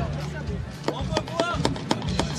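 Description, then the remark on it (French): Wooden clogs clack on a hard surface in a steady walking rhythm, about six sharp hollow knocks, with a voice murmuring faintly underneath. “Bon alors, eh, fais-moi, un peu, qu'on peut avoir un petit bruit de sabots Si vous avez des sabots, ça c'est magnifique.”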